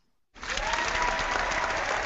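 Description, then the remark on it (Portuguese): Applause from an audience bursts in after a brief silence, a dense, steady wash of clapping that holds at full loudness without fading. “a plateia que hoje estava quieta até esse momento só escutando se manifestou”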